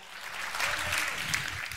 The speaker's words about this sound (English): And if you're glad for that, give the Lord a great hand clap of praise. Would you do that right now? Amen.